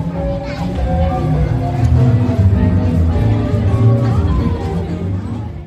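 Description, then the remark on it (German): A dense outdoor crowd murmurs continuously at a district museum's stand at a street festival in Rudolfsheim-Fünfhaus, many overlapping voices and children's chatter blending into a steady, lively babble with no single speaker standing out. “So, liebe Hörerinnen und Hörer, jetzt stehe ich wirklich da nicht am Stand, weil am Stand ist es zu laut, man hört es draußen.”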